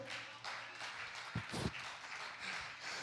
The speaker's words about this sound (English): I know we're supposed to clap at that, but I'm telling you, I'm not saying that for something to clap about.